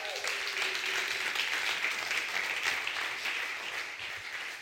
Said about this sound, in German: Hey, gerne mal der Band noch einen riesen, riesen Applaus. Danke vielmals.